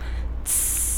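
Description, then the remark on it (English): A voice imitates a basketball with a sharp, sustained hissing "psssh" that cuts in partway through and holds steady, loud, with no talking around it. “it's the sound of a basketball.”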